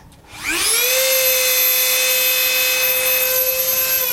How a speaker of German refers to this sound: Das war gar kein Zahnarztbohrer oder überhaupt ein Bohrer. Das war ein Dremel, den ich da gehört habe. Aber es klang wie beim Zahnarzt tatsächlich.